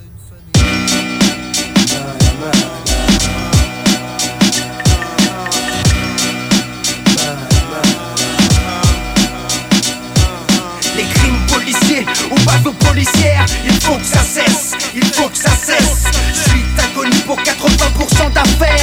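A French rap track plays loud and close throughout, driven by a steady, punchy beat with dense layered music.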